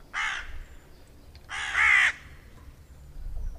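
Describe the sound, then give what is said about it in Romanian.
Two harsh, raspy caws from a hooded crow, the first short and the second longer and louder, separated by about a second of quiet against a low outdoor rumble. “Gălăgioasă își anunță prezența prin croncănitul repetat, aspru și răgușit.”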